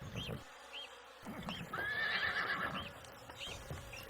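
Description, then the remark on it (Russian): A horse neighs loudly in a long, quavering whinny that rises and shakes before fading, with a few soft hoof clops around it and no talking. “Пасецца конь тыдзень, пасецца другі, паправіўся, нават падбрыкваць пачаў.”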